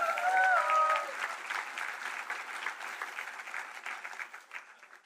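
A crowd applauds steadily for people coming up to share summer camp testimonies, a dense wash of many hands clapping that starts loud and slowly tapers off over several seconds, with a brief whistle or cheer near the start.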